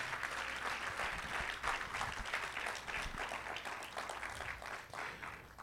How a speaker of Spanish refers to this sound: Si usted lo cree, déle un aplauso fuerte en esta mañana.